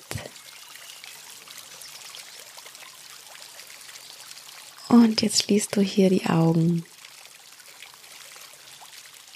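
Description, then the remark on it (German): A small stream babbles softly and steadily throughout, a gentle continuous trickle in the background, while a voice speaks briefly over it partway through. “Und mit dem Plätschern des Flüsschens, mit dem Zwitschern der Vögel und mit dem Rauschen der Blätter schläfst du ganz gelassen und in Ruhe ein.”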